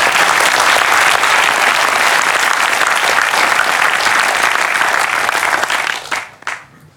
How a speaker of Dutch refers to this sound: Dus ik wil beginnen met een groot applaus voor hun. Voordat we naar de, naar de sessie gaan.